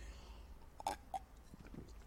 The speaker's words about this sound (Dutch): Even een slokje water.